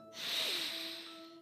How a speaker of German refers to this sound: ich empfehle Ihnen jetzt Folgendes. Atmen Sie ihn tief ein